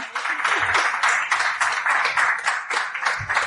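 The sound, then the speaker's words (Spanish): An audience at a venue for cultural activities claps steadily for a woman as she comes in. Many hands blend into a dense, continuous applause that stays fairly loud throughout, with no voices standing out. “le dais un aplauso fuerte, que se vea que hay gente.”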